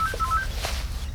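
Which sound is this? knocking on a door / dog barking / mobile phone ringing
mobile phone ringing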